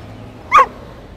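A single short, sharp dog bark rings out once over a low, steady background hum, clear, with no talking around it.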